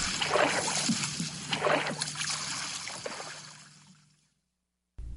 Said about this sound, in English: They splashed home through the puddles.